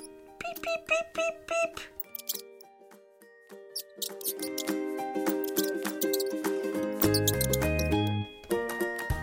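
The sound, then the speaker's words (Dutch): High, thin mouse squeaks chirp in quick bursts near the start, then a busy, tonal backing of bright notes and a deep bass line takes over, with no talking. “Er loopt iets door de kamer. Iets grijs met een hele lange staart. Dat is een muis, zegt mama.”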